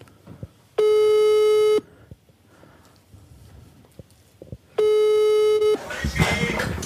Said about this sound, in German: Ich rufe jetzt an. Ja. klingelt schon.